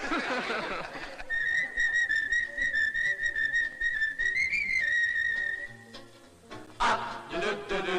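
A person whistles a tune, holding long, mostly steady notes with slight wavers, then a couple of shorter rising whistles near the end after some brief noise.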